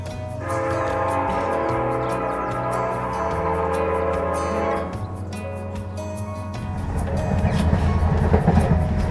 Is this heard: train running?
yes